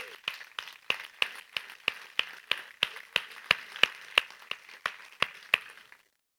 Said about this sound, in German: Gib doch deinem Sitzgespendli ähm, und allen von uns einen riesen Applaus, was wir hier alles zusammen vollbracht haben. Come on.